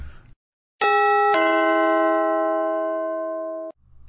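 A bright two-note bell chime, like a ding-dong doorbell, from the His Story bell sound file, rings out clearly and alone, its clean tones sustaining for a couple of seconds before cutting off.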